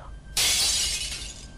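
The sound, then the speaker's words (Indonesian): A sudden, loud crash of glass shattering, bright and crackling, with the fragments tinkling and scattering for over a second before fading slightly. No voices are present. “ngobrol panjang lebar sampai akhirnya ada kayak suara kaca pecah”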